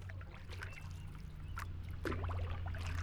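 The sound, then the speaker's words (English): Small waves lap and slosh against the shore in gentle, irregular splashes over a steady low rumble in the background. “sending waves out on an infinite journey until they crash onto the shore”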